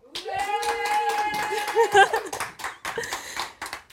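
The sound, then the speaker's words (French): Lively audience applause at the Tech Show welcomes a guest, filling the room for about four seconds: dense clapping with a sustained tonal cheer or musical note riding over the first half before the clapping tapers. “Merci de l'accueillir bien fort.”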